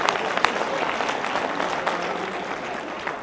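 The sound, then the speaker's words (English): An audience high-fives one another and breaks into steady applause, a dense wash of many hands clapping with sharp individual claps popping out, sustained at an even loudness throughout without any speech. “High five them and give them a round of applause.”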